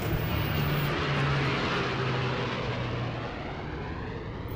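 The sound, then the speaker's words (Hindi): A propeller airplane carrying a Madras police team to Bombay for a case investigation drones steadily overhead, a loud, continuous engine roar with a low humming tone that eases slightly toward the end. No voices are present. “investigation के आगे ले जाए खातिर मद्रास पुलिस के एगो टीम के बॉम्बे भेजल गई इ देश के इन्वेस्टिगेशन हिस्ट्री में पहला वाकया रहे जब स्टेट पुलिस के अधिकारियन केस के इन्वेस्टिगेशन खातिर हवाई जहाज से यात्रा कैले”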